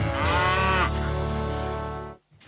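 A single loud, drawn-out cow moo lasting about two seconds with a rich, droning tone that ends abruptly, followed by a brief faint grunt.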